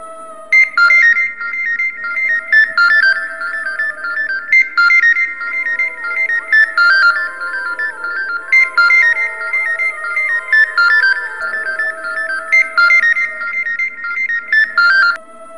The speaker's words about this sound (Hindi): मैं उस ओर चलने लगा तभी मुझे फोन की घंटी सुनाई दी